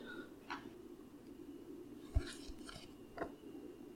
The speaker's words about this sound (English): Um, man, I get to roll dice today.